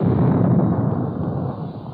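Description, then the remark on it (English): A heavy, rumbling blast of the 16-inch guns of the battleship Missouri firing off the east coast of North Korea near Hungnam, a dense low roar that fills the two seconds and slowly tails off, booming with no voices. “burst of sound you hear comes from the 16 inch guns of the Big Mo, the battleship Missouri.”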